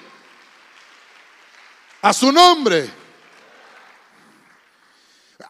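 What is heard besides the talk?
audience clapping hands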